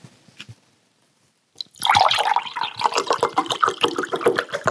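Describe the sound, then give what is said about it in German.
A drink is poured into a glass: after a soft clink, liquid gurgles and splashes steadily for about three seconds, a bright, bubbly trickle with no voices over it. “Haben wir noch was zu trinken? Ja, klar. Ein bisschen ist noch drin.”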